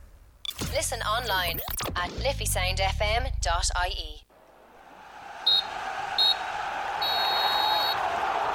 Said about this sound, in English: Well, there goes the full time whistle.